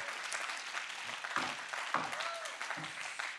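A crowd claps their hands to show agreement, a dense wash of many hands applauding at an even level throughout, with a few faint voices calling out underneath.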